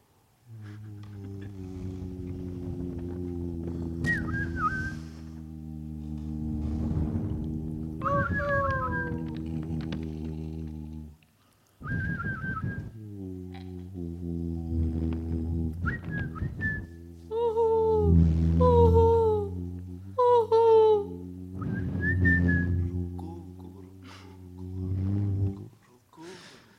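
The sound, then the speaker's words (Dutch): Forest ambience with whistle-like calls repeatedly rising and falling over a steady, loud low drone, broken by a short pause midway and continuing until it stops abruptly near the end. “Tot zover eh, eh, de geluiden uit het bos.”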